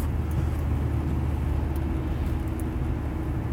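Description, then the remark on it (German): Steady, deep engine and road rumble from inside a moving third-generation Volkswagen Golf (Mk3), with a constant low drone and faint higher hiss, no voices. “Und ich habe im Laufe dieses Jahres auch schon den ein oder anderen Taler in äh, diesen Dreier Golf hier investiert.”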